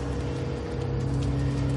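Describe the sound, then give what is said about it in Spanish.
A bus's engine rumbles steadily, a deep idling hum with a constant drone, as the bus pulls up and stops in front of a woman wearing a hood on a fine night. No voices. “Un autobús para frente a la mujer en que lleva capucha.”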